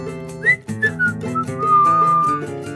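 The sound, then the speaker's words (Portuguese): A person whistles a casual, wandering little tune, a few short notes gliding into one long sustained tone, heard over a soft musical accompaniment with no talking. “Assobiando.”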